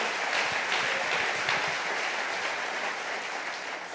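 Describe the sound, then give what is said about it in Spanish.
An audience applauds the Lord steadily for several seconds, a dense wash of many hands clapping at once, loud and sustained before easing slightly at the end. No one speaks over it. “Dele fuerte ese aplauso al Señor.”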